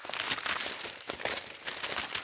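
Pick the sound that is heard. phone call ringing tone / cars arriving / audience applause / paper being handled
paper being handled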